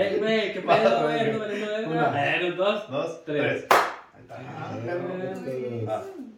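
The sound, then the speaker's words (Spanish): A single sharp hand clap sounds once, partway through, amid continuous talking from a person whose voice runs before and after it. “no sé por qué no aplaudo uno nomás.”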